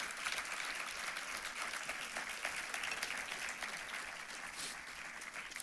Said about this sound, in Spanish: ¿Le das un aplauso por el proceso que estás viviendo al Señor?